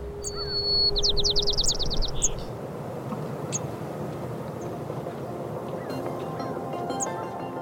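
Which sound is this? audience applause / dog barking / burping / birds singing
birds singing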